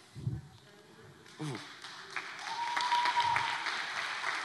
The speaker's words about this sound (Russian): Дай огромные аплодисменты Господу.